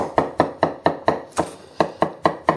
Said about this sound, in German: Und Dann nehme ich Teele für Kapern aus dem Glas. Da mache ich das auch genauso. Schneide die erstmal in Streifen und dann in Würfel und hack die mit unter.